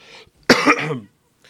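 A single harsh cough bursts out sharply during an interview and fades within about half a second, with faint breathy noise before and after.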